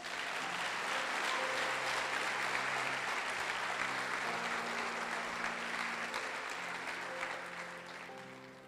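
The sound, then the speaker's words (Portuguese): A crowd claps and cheers for Jesus in a dense, sustained wash of applause, with faint sustained musical tones underneath, easing off slightly toward the end. “Dê um forte aplauso para Jesus.”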